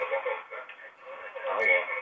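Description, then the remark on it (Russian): Thin, tinny voices of the radio hosts echo back over a caller's telephone line from the caller's own radio receiver left on, with talk continuing throughout at a steady, moderate level. “Мы бесконечно любим вот это бесконечное эхо наших э, голосов, да.”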